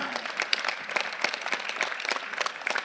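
An audience applauds steadily, a dense wash of many hands clapping, sustained without pause and with no one speaking over it.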